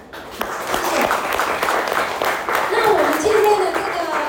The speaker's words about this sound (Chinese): 那也要感谢我一群优秀的伙伴，好，因为有他们才有今天的我。那借由各位的掌声，也谢谢他们。